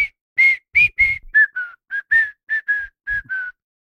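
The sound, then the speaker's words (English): A person whistles the short whistle tune from The Wire, the song closer Bautista comes out to: about a dozen clear, bright notes in a steady rhythm, fairly loud, with no talking over it. “Yeah, the whistle. So the fucking whistle.”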